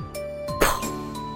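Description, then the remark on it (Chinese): A single sharp crash of a vase shattering after a baseball flew into it in a living room, followed by a brief bright tinkle of breaking pieces, heard over a steady, sustained musical tone. “花瓶碎了”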